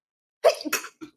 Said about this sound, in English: Excuse me. Bless you. Sneeze.